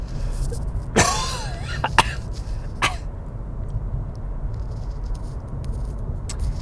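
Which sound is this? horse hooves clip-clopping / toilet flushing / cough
cough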